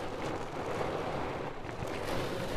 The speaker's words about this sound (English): is a torrential downpour hitting the roof of my car.